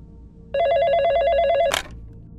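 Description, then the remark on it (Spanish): A telephone rings once with a fast, warbling electronic trill that lasts about a second, then cuts off with a sharp click. Faint low hum underneath, no voices. “Recuerdo que era un viernes por la noche cuando escuchamos que sonó el teléfono.”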